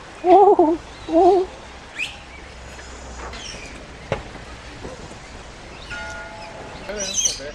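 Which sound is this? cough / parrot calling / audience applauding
parrot calling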